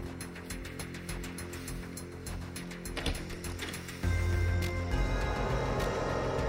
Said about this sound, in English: The doorbell rang. I opened the door.